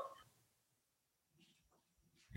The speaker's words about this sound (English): You guys hear that cat? hold on, well, hold on, She's she's like um, crying right now.